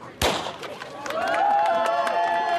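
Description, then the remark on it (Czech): A single sharp, loud crack of a starting pistol shot at the start of a race in Velké Bílovice, Břeclav district, South Moravia, followed by a continuous murmur of a crowd with overlapping voices and faint whistles or cheers. “Koncentrace, výstřel a start.”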